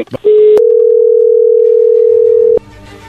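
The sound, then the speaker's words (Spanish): A phone call being dialed: a loud, steady telephone tone holds one unbroken pitch for about two seconds, preceded by a brief click and a short beep, then cuts off into faint background noise. “Bueno, vamos a llamarle en este momento. No haga ruido, por favor. Ahí se está marcando.”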